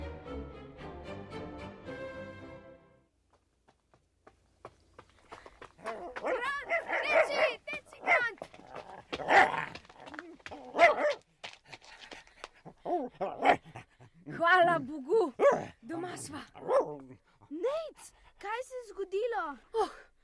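dog barking and whimpering

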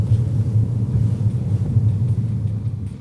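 car driving

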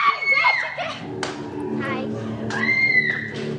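girls screaming

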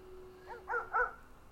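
aggressive dog barking

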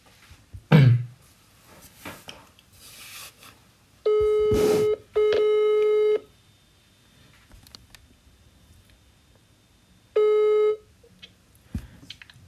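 phone call connecting

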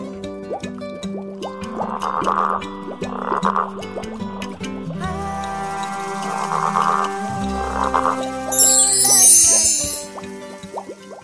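toads croaking

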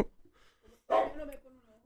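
dog barking sound effect

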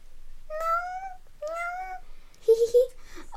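cat meowing

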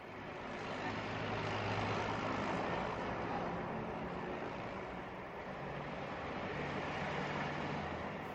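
city traffic

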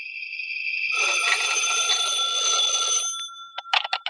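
telephone ringing

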